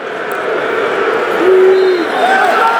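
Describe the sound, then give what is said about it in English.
A large football stadium crowd of Raith Rovers fans roars and boos in a sustained, dense wash of voices during a match against Celtic, with a few higher whistles rising through the steady noise. “And you hear the booze in the background with the Raith Rovers fans, you're definitely not happy about it.”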